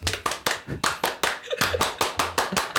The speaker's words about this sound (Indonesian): Emang kita anaknya pramuka banget. Gokil. Coba tepuk pramuka.